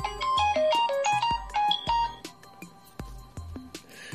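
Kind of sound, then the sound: signal or alarm, phone ringtone ringing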